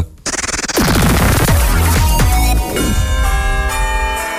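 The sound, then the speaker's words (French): Loud Easter church bells clang together in a dense, overlapping peal, several strikes piling up before the tones hang on and ring out. The bells sound full, with no voices. “Les cloches de Pâques sont passées sur Ultrason”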